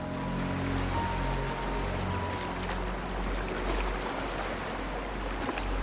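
Water sloshes and splashes steadily as someone in knee-length long underwear wades into the sea at a beach bordering a forest, over a constant low droning hum, with no voices.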